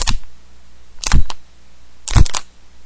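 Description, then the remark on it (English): Three sharp plastic-on-plastic knocks made with a small plastic piece, each a quick double ka-chunk, spaced about a second apart with quiet between them and no talking. “the ka-chunk was plastic on plastic, and um, it was my flash drive”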